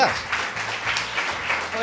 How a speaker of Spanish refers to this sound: Un aplauso para ellos, chicos. ¿Dónde están?